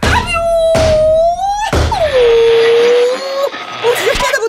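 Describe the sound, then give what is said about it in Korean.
Three dull, heavy thuds of a headbutt, spaced under a second apart, with a wavering high whining tone sliding between and after them, as a crossed walkie-talkie signal is caught again. “저 반장님 제가 박치기로 이 신호를 다시 잡았습니다”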